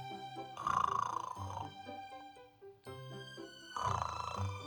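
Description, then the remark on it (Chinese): Two rough, rumbling snores of an old woman asleep in a warm bed, about three seconds apart, each a drawn-out growl, rising over a soft, steady bed of tonal music that carries on between them. “那张床上有一位老奶奶，打鼾的老奶奶。”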